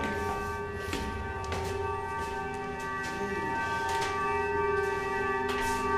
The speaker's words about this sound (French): Ah non, c'est l'orgue. Qu'est-ce que c'est que cette manière de klaxonner qu'à l'orgue Donc il y a une fuite quelque part ici. Une fuite Ah oui, ça à dire qu'il y a une flûte qui est en train de céder, comme euh, les tuyaux sont vétustes,